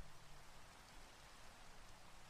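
Steady rain falls in a dense, even hiss, its constant patter spreading across the whole clip with no pauses and no voices.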